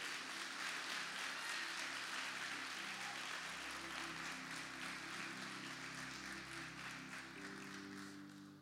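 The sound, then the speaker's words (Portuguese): An audience applauds Jesus for the lives of heroes of the faith, a dense wash of many hands clapping at once that holds for several seconds before tapering slightly at the end, with no one speaking. “Será que nós podemos aplaudir a Jesus pela vida desses homens?”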